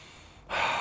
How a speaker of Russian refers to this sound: Поэтому для снятия стресса классика Востока – это дыхание. И внимание на дыхание. Спокойно, ровно дышим. Глубокий вдох-выдох.